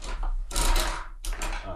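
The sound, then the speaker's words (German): The crank of a coin-operated gumball machine is turned after a one-euro coin is inserted, making two loud bursts of grinding, ratcheting mechanical clatter split by a brief pause, over a low steady hum. “Warte, da oben muss man eine Münze nehmen, ein Euro, und dann okay. stecke ich das jetzt mal da rein und mhm. drehe mal”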